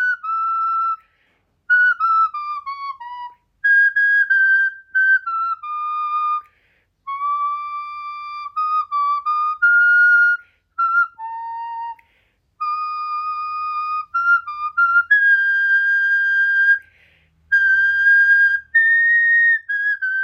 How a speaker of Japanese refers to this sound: ただまあ、あの、結構体力いるんですよ、花笛って。うん。なので、吹き続けるのは疲れるので、吹いて休憩して、吹いて休憩してっていう感じで。うん。で、楽器未経験の人でも、手にしたその日から吹けるんですよねそれがやっぱりね花笛の魅力でもありますねうんちょっとだけじゃあ吹きましょうか